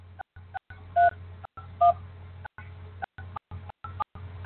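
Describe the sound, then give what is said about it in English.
A quick series of telephone keypad tones, several short beeps in irregular succession, as a host PIN is punched in on a Blog Talk Radio phone line over a faint, steady low line hum. Nobody speaks. “Please enter your host pin. When finished, press the pound key.”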